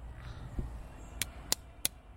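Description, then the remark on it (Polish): Three sharp, evenly spaced slaps of a hand against a stone statue of an eagle, crisp, after a softer dull thump, with quiet outdoor background and no talking. “Jeszcze klepnij parę razy, żeby słuchacze słyszeli.”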